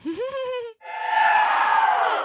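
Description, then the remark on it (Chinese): A single voice lets out a short rising whoop, then a loud crowd-cheer sound effect swells in and holds steady for the remaining second and a half. “这时候感觉要有个欢呼声。”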